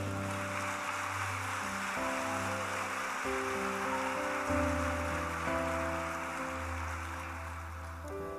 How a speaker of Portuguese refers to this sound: Diga amém, dê um aplauso ao Senhor.